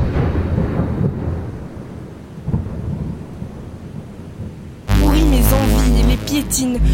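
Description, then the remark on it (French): Deep rolling thunder rumbles over a steady wash of rain for several seconds, then loud music abruptly cuts in and takes over. “Le ciel fait des siennes, mon cœur ne tient plus. Regard, pluie, rafale de vent. Coup de foudre.”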